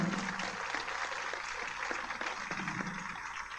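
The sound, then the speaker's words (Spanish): Sustained applause from a crowd at the DIF Guerrero 2022 activities report, for the institution's workers: a dense crackle of many hands clapping steadily at a fairly even loudness for the whole stretch, with no clear individual claps standing out. “Nuestros invitados de honor son ustedes, que han creído en nosotros y en nuestro trabajo, por lo que les damos un fuerte aplauso a todos los que laboramos en esta noble institución.”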